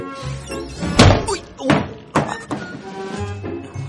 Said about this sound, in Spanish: El padre vuelve a la cocina, abre un armario y le cae la tabla de la plancha en la cabeza.